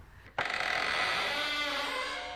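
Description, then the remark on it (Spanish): A sharp metallic clack as about fifteen bolts are drawn back, then a long, loud grinding creak as a heavy door swings open, steady for about two seconds, with no one speaking. “Y luego descorre unos 15 cerrojos y abre la puerta.”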